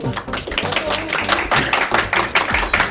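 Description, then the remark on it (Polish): A group of people clapping steadily for a few seconds, a dense, continuous patter of overlapping hand claps at an even loudness with no clear pauses. “Możecie brawo bić, bo...”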